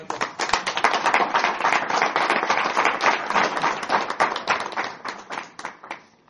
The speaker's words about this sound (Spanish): Pásale. Un aplauso para...